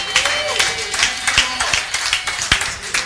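An audience claps and cheers together as a clap offering to the Lord, dense overlapping applause at steady volume, with sharp individual claps popping out and voices shouting underneath.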